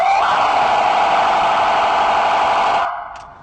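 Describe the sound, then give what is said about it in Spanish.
A loud, steady emergency vehicle siren tone, the one used for traffic jams or when vehicles do not move, blares continuously, harsh and buzzy, then cuts off abruptly near the end, followed by one brief chirp. “Y este tono que a continuación te voy a mostrar es un tono para embotellamientos o cuando los vehículos no se mueven porque traes la música alta o porque traes tus vidrios arriba.”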